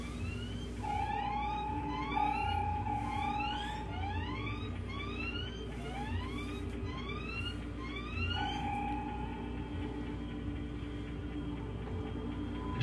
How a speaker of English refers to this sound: We're passing through an old-style distress signal. They were keyed to cause interference and attract attention this way. A ship in trouble making a forced landing, sir.